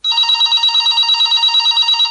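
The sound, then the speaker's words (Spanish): A mobile phone rings with a bright, shrill electronic trill, rapid pulses repeating steadily for about two seconds, loud with no voices. “Si te anuncias en Calea, así sonará tu móvil.”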